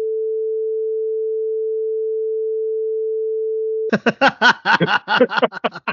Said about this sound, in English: You guys bleep it out, okay?